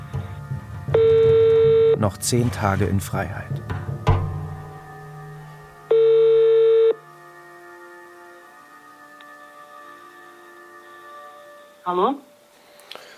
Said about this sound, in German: Telefonat